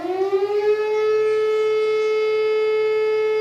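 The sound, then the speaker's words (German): A loud civil defense siren in Wohlstreck, Lower Saxony, Germany, sounding around half past nine on an August morning to alert the volunteer fire brigade to a barn fire, rises in pitch over the first second, then holds a steady, sustained wail with rich harmonics, heard clearly and alone without any talking. “Ein schöner Morgen im August, Sommerferien in Niedersachsen, als plötzlich in Wohlstreck gegen halb zehn die Sirene heult.”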